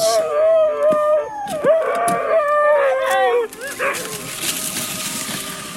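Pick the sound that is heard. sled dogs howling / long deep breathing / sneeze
sled dogs howling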